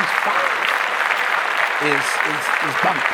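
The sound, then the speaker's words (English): Steady, dense clapping from a sizable group fills the whole stretch without letting up, with a few voices briefly calling out or talking underneath near the end. “Let's clap that.”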